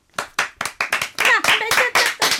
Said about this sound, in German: Gebt ihr ihm mal einen Applaus.